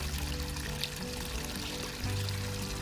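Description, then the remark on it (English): A small stream of water trickles and burbles steadily, fairly quiet, a continuous bright splashing wash with no voices. “This little stream of water is forever moving, travelling forwards, never looking back.”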